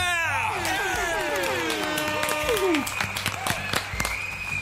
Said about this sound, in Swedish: Vi kör en applåd och lite tuta på det!